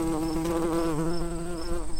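A fly buzzes loudly as it takes off, a steady droning hum with a slight wavering pitch that continues without a break for the whole two seconds.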